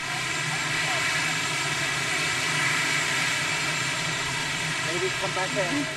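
A helicopter carrying US President Trump lands in the garden of the White House, its engine and rotors roaring steadily and loudly for the whole stretch, a dense whining drone layered with constant high-pitched tones that never fade.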